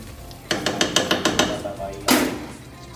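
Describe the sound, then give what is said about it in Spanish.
A spoon stirs a thick garlic-cream pasta sauce in a pan: about seven quick, evenly spaced scraping strokes, a short pause, then one longer, louder scrape against the pan. “Vamos a dar una meñadita a nuestra salsa, la espesita abajo, ajá.”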